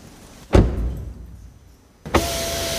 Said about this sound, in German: okay, da hat jemand äh, irgendein Problem mit seinem Fensterheber.